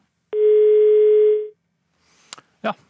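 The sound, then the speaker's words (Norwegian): A loud, steady telephone dial tone hums for just over a second and cuts off, followed by a couple of brief clicks and a short burst of line noise, during a failed call to political scientist Aksel Bråden Sterri. “Det var eh, en helt eh, annen tone. Mens vi forsøker å få tak i, i Sterri”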